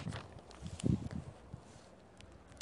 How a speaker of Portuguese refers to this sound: Gente, vocês escutaram um barulho porque o vento tá soprando aqui nas folhas e tá fazendo barulho mas enfim.